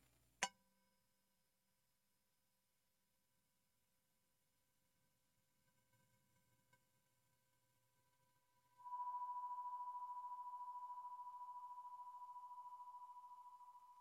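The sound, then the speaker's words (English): A meditation chime rings out with a pure, steady tone that lingers and slowly fades, preceded by a soft strike near the start and a quiet stretch in between. “As we listen to the chime, let us remember our connection to each other and the world around us.”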